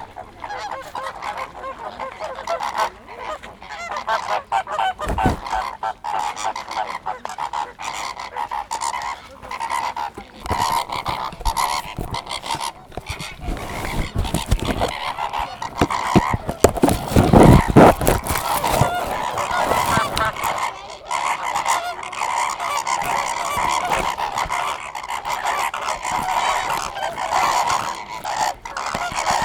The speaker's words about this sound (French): Ah oui, il est cut. Il est très court. Toujours très noise. c'est, enfin, en tout cas, pas toujours très noise, mais ce son de flamant Rose, il est particulièrement euh, brut. Enfin, brutal, j'allais dire.